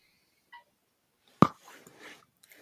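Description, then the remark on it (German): A cork pops sharply out of a beer bottle, loud, followed by a short burst of soft fizzing. A faint clink comes just before. “wo wir wieder beim Korken und dem Kronkorken wären.”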